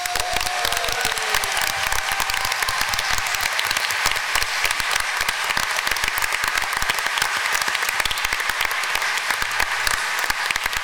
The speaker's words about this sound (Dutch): Een warm applaus